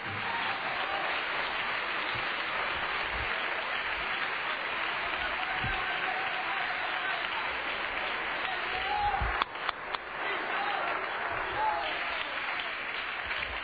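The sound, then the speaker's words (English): A crowd applauds steadily for over thirteen seconds, a dense wash of many hands clapping together in worship, with a brief louder burst of sharper claps partway through. “Clap your hands to the Lord and let Him know we're going to worship Him in the Word tonight.”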